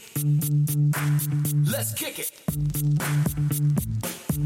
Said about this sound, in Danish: Øhm, skal vi ikke lige høre en sang øh, her? Det synes jeg.